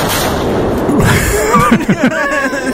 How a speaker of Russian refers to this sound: Друзья, это, это был выстрел из пушек. Правый борт готов.